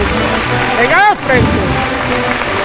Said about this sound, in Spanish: Rompiendo con los aplausos también de la gente. Sigue el paso avanzando.